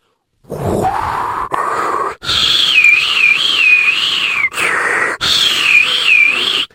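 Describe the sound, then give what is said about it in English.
A voice imitates howling wind, a breathy whooshing rush with a wavering whistle-like tone that rises and dips, sustained across several long gusts separated by brief breaks. “And the wind was howling. Oh, howling, I could do that.”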